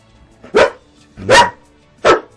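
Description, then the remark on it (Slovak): Three deep, loud barks from a large dog, barking on command, spaced evenly about three-quarters of a second apart, with quiet background between them and no talking. “takže už sme ho aj počuli. Áno. už teda aj... Mohutný štekot naozaj.”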